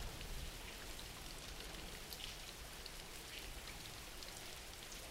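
Steady rain falls without pause, a dense, even hiss with scattered brighter drops pattering on a surface. No voices, just the continuous wash of rainfall throughout.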